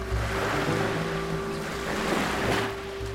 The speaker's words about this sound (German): Sanfte Wellen spülen auf den Kiesstrand der Dilek-Halbinsel an der türkischen Westküste.